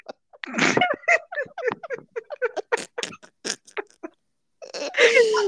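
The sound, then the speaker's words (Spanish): Someone imitates Donald Duck's voice, spitting out a rapid stream of raspy, squawking syllables, pausing briefly, then letting out one more garbled burst. “Ay, cállate que haces como el pato Donald y tú diciéndome cosas.”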